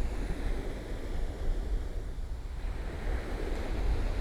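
Sea waves wash steadily onto a pebble beach on a windy day, the sea not calm but not very choppy and slightly frothy, a continuous broad surf hiss with gentle swells, mixed with a low wind rumble against the microphone. No one speaks.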